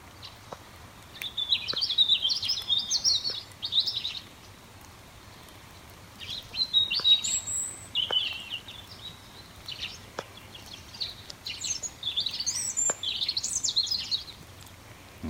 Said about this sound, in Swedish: Där var, där var den. Där var den. Ja. Röd hake.